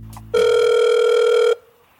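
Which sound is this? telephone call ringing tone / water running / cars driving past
telephone call ringing tone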